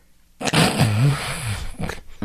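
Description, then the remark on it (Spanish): After a brief silence standing for an apnea pause in breathing, a voice imitates the loud, rough snore that follows as breathing resumes: a gasping, rattling intake with a wavering low pitch lasting over a second, followed by a couple of short breathy puffs. “Así es, viene otra vez un ronquido diferente que puede ser más intenso o puede ser una exhalación.”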